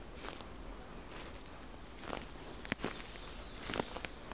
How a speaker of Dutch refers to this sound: En je zult mijn voetstappen op de ritselende, de ritselende voetstappen op de blaadjes op de grond horen.